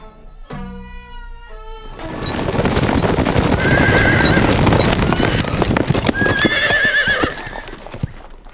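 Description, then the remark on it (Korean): A horse whinnies sharply at the start, then a dense clatter of many hooves clip-clopping builds and carries on loudly, with more neighing cutting through near the end; twenty healthy battle horses granted by the king to a commander setting out on a campaign to the northwest. “서북면으로 정벌하여 떠나는 총용사 이서에게는 전투에 쓰일 건강한 말2 0필을 특별히 하사하도록 하라.”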